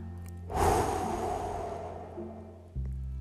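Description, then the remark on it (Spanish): One strong exhale through the mouth during a guided breathing exercise of inhaling through the nose and exhaling strongly through the mouth: a loud, breathy rush begins abruptly, then tapers off gradually over about two seconds. A low, steady hum sits underneath. “y vamos a comenzar a inhalar por la nariz y a exhalar por la boca tres veces de manera muy fuerte.”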